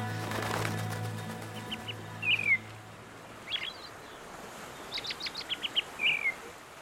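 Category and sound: bird, seagull calls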